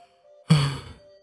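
A single yawn-like exhale, a breathy rush with a low voiced hum that starts abruptly, then trails off over about half a second, standing alone with no talking. It is a person yawning while keeping vigil over the dead in a mourning tent at night.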